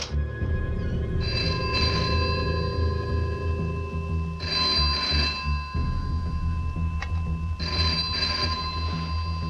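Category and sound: household object, telephone ringing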